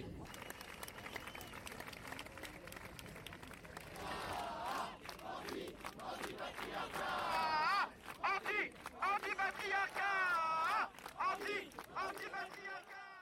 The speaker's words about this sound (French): On écoutait à l'instant euh, des sons de la mobilisation de dimanche dernier à Paris et notamment Joël Demier, le président de SOS Homophobie, qui parle de l'absence d'engagement du gouvernement pour la cause des personnes LGBT.